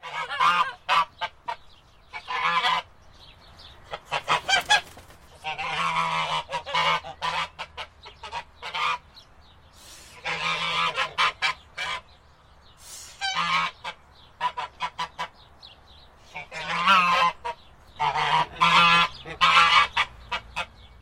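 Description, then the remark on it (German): A goose cackles and honks in repeated bursts of harsh, nasal calls, fairly loud, with short pauses between the volleys over about twenty seconds. “Zum Abschied schnattere ich Barbara fröhlich zu und watschle in meinen Stall.”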